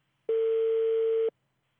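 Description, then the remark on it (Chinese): A telephone ringback tone sounds while a call to the Shiyan Subdistrict Office in Bao'an District, Shenzhen, China connects, after a recorded greeting: a single steady, mid-pitched electronic beep lasting about a second, loud and alone, with silence on either side. “电话正在接通中，请稍后。”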